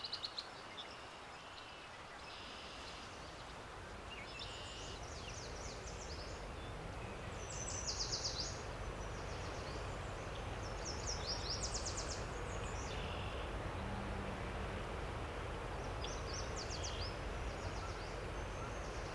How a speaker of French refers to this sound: Profitez-en pour tendre l'oreille aux chants d'oiseaux et ne vous gênez pas pour prendre une pause à une table.